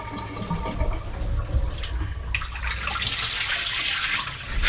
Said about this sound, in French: Faut sortir les têtes de la casserole Ouais. Bah, attends, il faut qu'on vide plus l'eau, on va vider l'eau là.